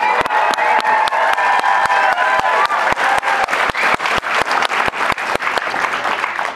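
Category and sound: crowd, audience applause and cheering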